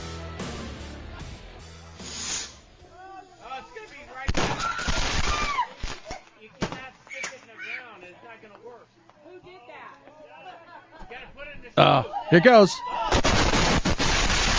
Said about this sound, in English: That's the sound of people who bought a bunch of fireworks and they all went off at once because somebody stuck a bottle rocket into, well, they didn't stick it into the ground.